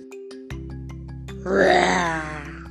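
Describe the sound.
A voice imitates a lion's roar with a single drawn-out, throaty growl that swells and fades, rising over a steady low musical drone and faint plucked notes.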